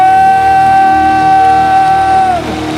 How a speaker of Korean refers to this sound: 바라고 원하시는 만큼 주님께 감사와 영광의 박수 승리의 함성